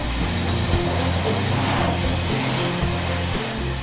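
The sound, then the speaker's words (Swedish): Train wheels squeal in sustained high-pitched whines over a steady low rumble of a moving railcar taking curves through the Alps, travelling down a valley along the Salzach river, continuous and fairly loud throughout, with no voices. “Tåget protesterar i kurvorna längs med de allt högre bergstopparna.”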